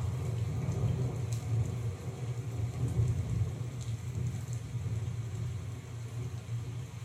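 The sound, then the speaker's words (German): A heavy rain and thunder nature sound played back from a sounds menu: steady, dense rainfall hisses continuously while deep, rolling thunder rumbles low underneath, swelling and fading throughout; no voices, just a constant storm wash. “Heftiger Regen und Donner aus heftiger Regen und Donner. Wo ist der Donner? Ach da.”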